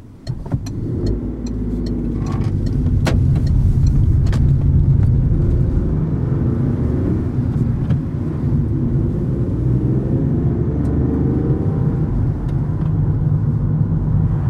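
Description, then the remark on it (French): A car drives steadily along the road on the way to Sarajevo, its engine and tyre noise forming a loud, continuous low rumble with a few brief clicks and knocks scattered through. No one speaks. “Elle a roulé”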